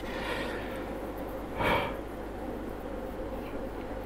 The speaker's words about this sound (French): Excusez-moi, je baille un petit peu.